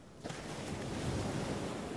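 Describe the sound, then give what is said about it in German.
Ocean waves crash and wash continuously in a broad, roaring surge around a small island, with bitterly cold water. The sound is loud, with steady wind noise blowing across the microphone and no voices. “in Anbetracht des Wellengangs und des bitterkalten Wassers”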